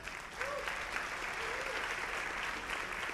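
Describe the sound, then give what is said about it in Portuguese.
An audience breaks into sustained applause to thank a group of young people the speaker has called up front, a dense, steady crackle of many hands clapping at once that holds at an even level throughout, with a faint voice briefly audible underneath. “Eu gostaria que vocês agradecessem a eles com uma forte salva de palmas.”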